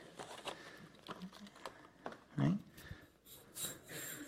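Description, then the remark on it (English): A metal slinky spring toy shifts and clinks in soft, irregular bursts, with a few sharper metallic rattles and one brief louder wobble, fairly quiet with no talking. “And it is a slinky. Any of you ever received that as a Christmas gift?”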